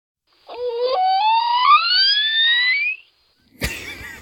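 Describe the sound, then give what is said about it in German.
A young dolphin's baby-talk whistle: one long, wavering tone sweeping steadily upward for a couple of seconds, clear and fairly loud, followed after a short pause by a brief burst of noisy crackle. “wirklich, als ob der Delfin jetzt gleich, äh, wie du sagtest, mit Helium gefüllt in die Luft geht.”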